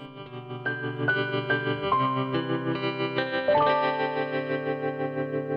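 An instrumental pop song intro plays on its own: a steady run of bright plucked notes over warm sustained chords, with a shimmering chorus-like effect and moderate loudness, and no singing or talk yet.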